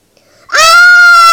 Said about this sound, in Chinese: 啊！大家尖叫起来，闭眼等死。